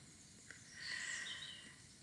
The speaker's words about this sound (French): J'ai ouvert la fenêtre de mon bureau à la maison. Il y a des oiseaux qui chantent. Il y a des petits oiseaux dont je connais pas le chant.